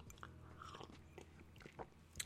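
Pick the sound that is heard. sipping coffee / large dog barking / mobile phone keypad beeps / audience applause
sipping coffee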